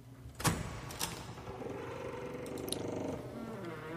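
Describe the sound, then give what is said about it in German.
The door to the main room creaks loudly as it is opened and shut: two short clunks, then a long, strained groan that wavers in pitch for a few seconds before fading out, with no voices. “Oh, die knarzt aber fürchterlich, die Tür.”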